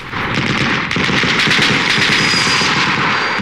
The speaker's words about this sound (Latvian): bet mašīnu pistoles par kafijas dzirnaviņām, tāpēc, ka tās grabēja un dārdēja tieši tā kā maldamas milzu kafijas pupiņas.